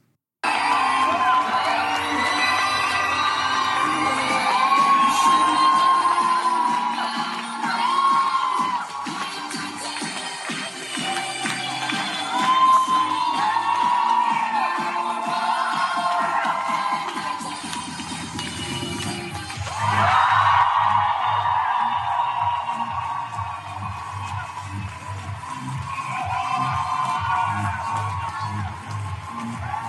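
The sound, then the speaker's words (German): A large audience at a book premiere cheers, whoops and shouts continuously for the full length as the author comes onto the stage, a loud, dense roar of many voices with high-pitched screams and yells rising above it. “der Saal hat getobt.”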